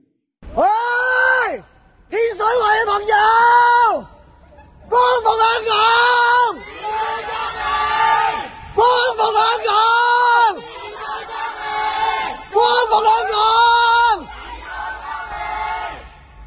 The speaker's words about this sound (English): Hong Kong residents provide solidarity to each other by shouting protests and protest slogans from their residences every 10 p.m.